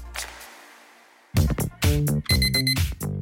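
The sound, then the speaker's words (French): The countdown app alarm on Vincent Bolloré's phone goes off at the end of its countdown, after a brief fading noise and a moment of silence, ringing loudly with bright, repeating electronic tones and no one speaking. “C'est quoi ce bruit C'est la fin du compte à rebours de Vincent Bolloré.”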